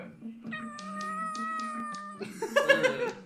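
A cat lets out a long, drawn-out meow lasting a couple of seconds, clear. It is followed by a burst of rougher, noisier sound that may be laughter.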